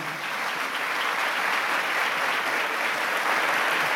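Sustained audience applause fills the space, a dense, steady wash of many hands clapping at even loudness throughout, with no voices rising above it.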